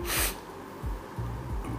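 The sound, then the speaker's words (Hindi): A voice imitates a wolf coughing with a bone caught in its throat: one sharp, breathy burst, then a few low, rough grunting sounds in quick succession, fairly quiet. “उसने खांसना खांसने की कोशिश की”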